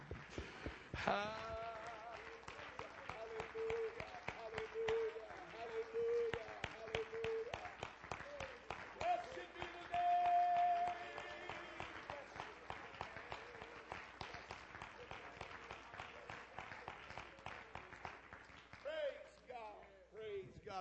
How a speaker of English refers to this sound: Put your Bibles down and let's put our hands together and clap our hands to the Lord and give Him praise right now.